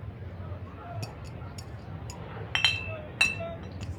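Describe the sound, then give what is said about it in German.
Heavy 1.5-litre beer glasses clink and knock together several times: a few light taps, then two louder, ringing clinks, over a low murmur of background chatter. “Nicht notwendig Eineinhalb Liter Gläser.”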